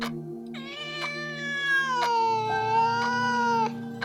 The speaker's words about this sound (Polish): No tak, koty. Widziała je dzisiaj po południu.